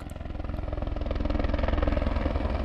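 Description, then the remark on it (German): A helicopter roars with a steady, rapid thudding of rotor blades over a deep engine drone, loud and constant, gradually swelling slightly in volume. It is lifting a wooden crate and a huge plastic sack on a long rope, at the Ortstockhaus above Braunwald in the Glarnerland. “An einem langen Seil trägt der Helikopter eine Holzkiste und einen riesigen Plastiksack in die Höhe.”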